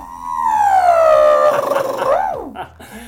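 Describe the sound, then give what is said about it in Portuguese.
A man imitates an electric drill with his mouth, a sustained whining tone that slowly sinks in pitch, wavers, then swoops down and stops after about three seconds. “ele faz barulhos também. Por exemplo, como é que faz furadeira”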